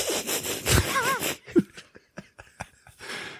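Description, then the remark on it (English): A voice imitates a gorilla's squeaky, wheezing snicker: a rasping, sawing breath with a few high warbling squeaks, then a run of short breathy huffs and snorts, fairly loud. “the gorilla makes a sound like Ernie does in Bert and Ernie”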